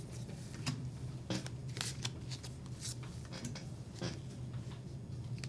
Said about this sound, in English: Okay, and then shuffle this this deck.